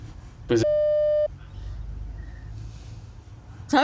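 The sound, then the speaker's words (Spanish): A single loud, steady electronic censorship bleep lasting under a second cuts off a burst of speech, covering a person's name, followed by a quiet hum before a voice returns at the end. “A ver, dilo, lo vamos a vipear.”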